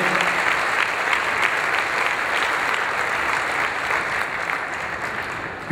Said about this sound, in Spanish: Denle un aplauso fuerte que se le merece en el nombre del Señor.